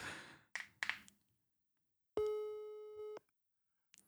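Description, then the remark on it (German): A single steady telephone ringing tone sounds for about a second during a call while waiting for someone to pick up, clear and fairly loud, after a few soft breathy noises and before a short silence. “Auch kein Tuten?”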